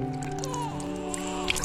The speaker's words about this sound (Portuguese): No dia do batizado. Agora o padrinho pode jogar água na cabeça do menino.